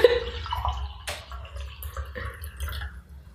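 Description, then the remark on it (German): Tea is poured into a cup, a steady trickling, splashing stream that gurgles for a few seconds over a low background hum, with no one speaking. “Sie möchte sich gerade einen Tee eingießen, traut sich aber nicht, weil sie Angst hat, dass das Geräusch reinkommt.”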